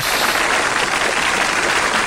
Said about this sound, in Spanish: Mira, aplaudiendo